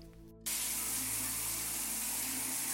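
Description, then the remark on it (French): A shower suddenly bursts on after a brief low hum, then pours in a steady, full hiss of spraying water that continues without a break. “Sous la douche, Omar frotta avec un gant de crin les plaques qui couvraient ses bras et ses jambes.”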